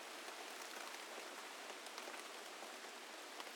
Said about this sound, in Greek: Ένα συνεφιασμένο βράδυ βγαίνω από νωρί στο μπαλκόνι για να τη δω να μπαίνει στην πολυκατοικία. Πιάνει βροχή και ανησυχώ μη γίνει μουσκημα.